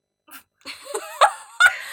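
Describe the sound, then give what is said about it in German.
A person imitates a cat, giving a few short, whiny meow sounds with rising and bending pitch, fairly loud, with breathy noises between them. “Wir vermissen unsere Katzen, wie man hört.”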